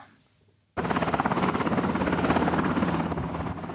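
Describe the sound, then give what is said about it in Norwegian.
A helicopter from the North Sea coming in to land at Stavanger Airport Sola: its rotor thumps in abruptly after a brief quiet moment, a loud, steady rapid chopping with a broad engine roar, sustained throughout. “Nok et helikopter fra Nordsjøen inn for landing på Stavanger lufthavn Sola.”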